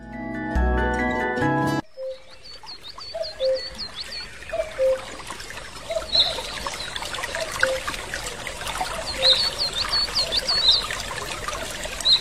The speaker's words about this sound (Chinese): 听，这来自雨林的声音。